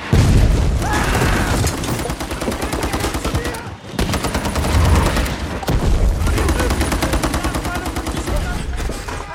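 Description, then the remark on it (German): A film battle scene with dense battle noise, rapid bursts of gunfire and heavy booming explosions, loud and continuous for the whole stretch, with a brief drop in the middle before the chaos resumes. “weil so viele Explosionen in dem Film sind, wahnsinnig viel lautes Kampfgeschehen.”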